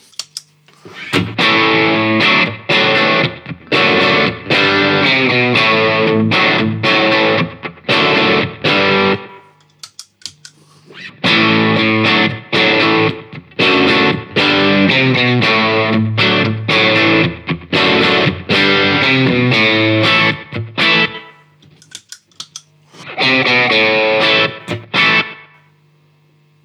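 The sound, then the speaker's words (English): A loud, heavily distorted electric guitar, played through a second distortion pedal, plays chords and riffs in three bursts separated by short pauses, with no talking over it. “that one is actually a bit louder.”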